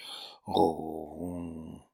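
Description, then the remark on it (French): A human voice imitates a cat's contented purr: a short breathy intake, then a steady, rumbling hum held for about a second and a half, moderately loud. “Pour décrire plus joliment ce que les autres appellent d'ordinaire le ronflement de contentement du chat, Rousseau est le premier à s'inspirer des”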